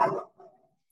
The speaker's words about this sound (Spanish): una disculpa por los ladridos. Parece que tengo un Rottweiler y es un perro chiquito, pero es un ladrón.